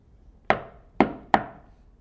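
Three sharp knocks on a door, the first two evenly spaced and the third following a little quicker, each a solid hollow rap that rings briefly before fading. No one speaks.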